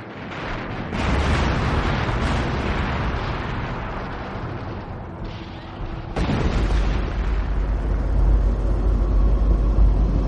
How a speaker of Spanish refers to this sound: En Berlín, los proyectiles rusos destruyen las calles que rodean el búnker.